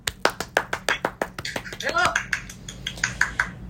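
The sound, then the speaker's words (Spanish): A small group claps in quick, uneven bursts of sharp hand slaps for a few seconds, with a short rising vocal whoop mixed in partway through. “Aplausos.”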